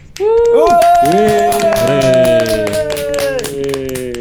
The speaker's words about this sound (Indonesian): Tepuk tangan dulu buat Denden Podcast.